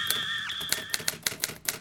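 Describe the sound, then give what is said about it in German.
Typewriter keys clack in a quick, uneven run of sharp strikes, clear, with a sustained bell-like ring sounding through the first half, as a manuscript is copied out on the typewriter. “Bevor das Manuskript der ersten Sendung in den Westen geschmuggelt werden konnte, musste es auf einer Schreibmaschine abgeschrieben werden, die nirgendwo, zum Beispiel als Inventar im Büro einer Verwaltung oder eines Betriebes, registriert war.”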